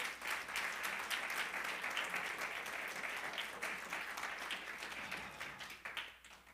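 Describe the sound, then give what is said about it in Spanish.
An audience in a church breaks into steady, sustained applause, many hands clapping together in a dense rattle that holds strong for several seconds before tapering off at the end. “Dale un aplauso al rey.”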